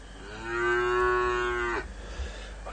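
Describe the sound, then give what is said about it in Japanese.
A single long, low cow moo, played to welcome arriving viewers, swells and holds steadily for over a second before cutting off, followed by faint background noise. No one speaks. “来ていただいた方はこうやって牛の鳴き声で出迎えさせていただいております。”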